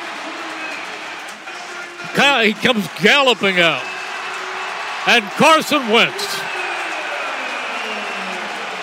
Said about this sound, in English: Huge ovation for both, and DeSean Jackson really got the crowd going.